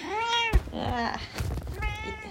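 A cat that has just woken up meows several times in a row, fairly loud, with drawn-out, wavering calls and a brief thump between them; no one is speaking.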